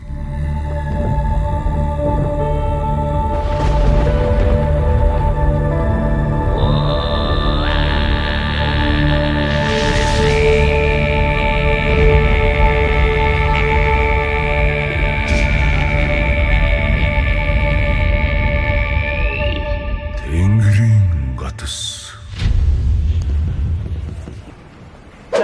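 A rock band's song plays loudly and steadily, built on layered droning tones with a deep rumbling low end and a long high sustained note, before breaking into scattered noisy bursts near the end.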